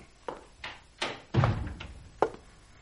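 A woman repeatedly rattles the knob of a door locked from the inside, producing about five clunky metallic bursts at uneven intervals, with a heavier thud midway. No one speaks.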